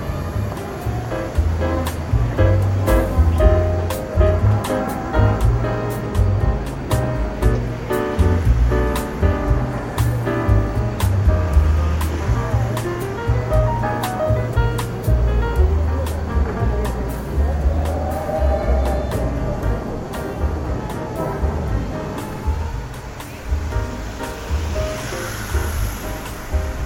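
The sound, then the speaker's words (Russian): Steady outdoor city street ambience in autumn: a constant low rumble of passing traffic with a washing, surf-like noise, scattered sharp clicks and knocks, and faint voices, moderately loud throughout. “Пока идешь, можешь поставить меня на паузу и насладиться звуками города и этой волшебной осенью.”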